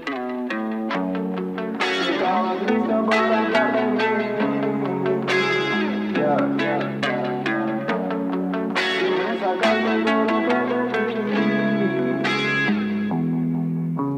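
Electric guitar plays a melodic, effects-laden intro with chorus and echo, steady rhythmic picking over sustained bass notes, loud and upfront with no voices.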